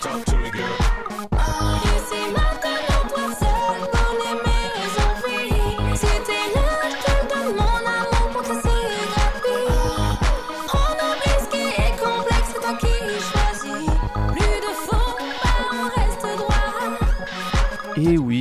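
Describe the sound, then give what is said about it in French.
A French cover of a pop song plays loud, a steady thumping dance beat driving it throughout, with bright layered synths and a sung melody over the top. “Oh pardon, cette version vous la connaissez peut-être pas, c'est celle-là que vous avez dû entendre à l'époque.”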